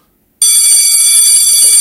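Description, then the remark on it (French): A loud electric school bell, the ordinary bell of the Saint-Joseph school group in Dijon, France, starts abruptly and rings continuously, a harsh, metallic, high-pitched clatter that holds steady without pause, with no voices over it. “Et la direction de l'établissement a eu l'amusante idée de changer la sonnerie ordinaire de...”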